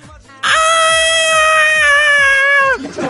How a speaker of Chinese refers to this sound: 那天中午，我们工作室呢集体午休，一片安静。突然，一声杀猪般的惨叫响彻我们工作室啊！